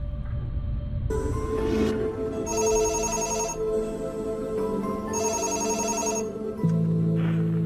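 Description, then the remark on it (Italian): A telephone rings in two distinct bursts separated by a pause, clear, over a low steady background drone with no one speaking: a call coming in to the TV programme Chi l'ha visto in 2005. “Il tempo passa, poi nel 2005 alla trasmissione Chi l'ha visto arriva questa telefonata.”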